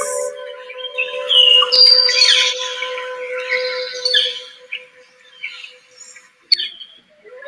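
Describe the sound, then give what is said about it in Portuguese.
Birds chirp and twitter outdoors in a field with mountains in the background, during a sunny day, in a busy, overlapping chorus with bright calls and short squawks over a steady faint hum, no voices present. “Há tá também pássaros.”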